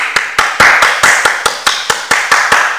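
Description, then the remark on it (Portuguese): A run of about a dozen sharp hand claps at a quick, slightly uneven pace, each a crisp smack that rings briefly before the next. Fairly loud, with no talking. “Ó, eu não, eu não posso mutar meu áudio aqui, porque no, no Clubhouse a gente muta e desmuta ali como se fosse é, aplaudindo.”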